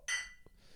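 Glasses touch in a single bright clink during a toast in Hamburg-Niendorf, the ringing tone lingering briefly before fading into quiet with no talking.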